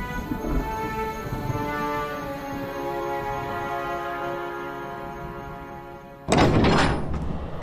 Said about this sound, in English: Inside the palace, the great door opens